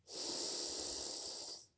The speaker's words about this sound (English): And so as we close out, let's come together taking an inward breath, breathing in,